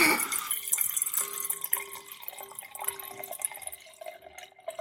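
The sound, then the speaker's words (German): Wine pouring steadily into a glass that is not a wine glass, a bright trickling and splashing stream with small drips that runs for about five seconds without any talking. “wir haben hier so einen Live-Versuch. Also ich habe jetzt kein Weinglas, um einfach mal zu gucken, wie sich der Wein in einem Lichtweinglas entwickelt.”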